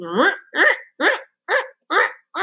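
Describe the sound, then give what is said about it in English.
A voice mimics a breast pump with six rhythmic, evenly spaced wheezy pulses, each a short voiced whoosh with a rising-falling pitch, fairly loud with brief silences between. “So on top of having these tubular style breasts, I then had to put this thing on it and then it made a sound.”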